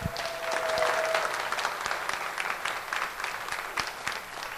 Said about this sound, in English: But since you aren't here, I want to at least show you that everyone that is here cares about you. So let's give it up a round of applause for those listening on podcast.